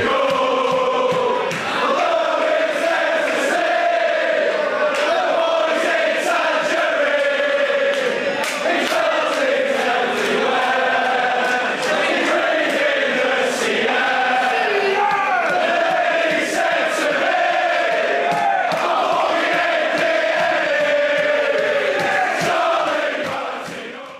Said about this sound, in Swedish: En otrolig ramsa som ju tog sig ut förra säsongen när dagens huvudperson representerade Blackpool.